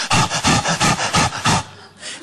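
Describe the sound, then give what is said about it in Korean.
A person imitates the panting of Sheffield, a therapy dog that would bring the phone when told to answer it, with quick, rhythmic breathy huffs, about seven in a row, fairly loud, then trailing off into a softer breath. “그러면 전화기를 들고 와서 주고 이렇게 막 어, 힘들 어, 숨을 헐떡였습니다.”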